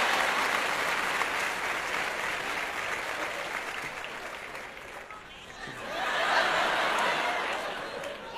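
An audience applauds in a sustained, dense patter of clapping that dips slightly midway, then swells louder again before tapering, with a few faint chuckles mixed in.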